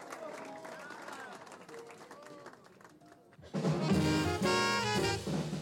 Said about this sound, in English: Let's get together and bring … to the bandstand with a great big round of applause. How about a big hand now for …?